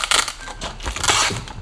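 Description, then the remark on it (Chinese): Hard frozen chicken pieces, bought at the supermarket and frozen solid into ice blocks, knock and clatter together, a run of sharp, crunchy, irregular impacts with a crackling, rattling texture, fairly loud and continuous across the moment, with no voices. “可是哦，这个鸡肉整个冻结了耶，这样我是不是要就是等一下才能够做呢？”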